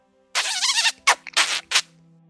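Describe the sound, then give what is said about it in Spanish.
A house mouse (Mus musculus) squeaks in a series of high, shrill bursts: one longer warbling squeal followed by three quick, sharp chirps, fairly loud with no talking. “¿A que suena? Un ratón, ¿no?”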